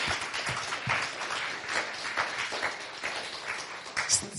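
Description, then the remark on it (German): An audience applauds steadily, a dense wash of many hands clapping at once, sustained for several seconds with no voices on top, as a speaker is thanked with a warm round of applause. “Gib dir mal einen ganz feurigen Applaus.”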